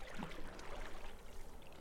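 The calm water of a stream beneath a bridge near a forest trickles gently and steadily at a low, even level, a soft continuous wash with faint bubbling, no voices present.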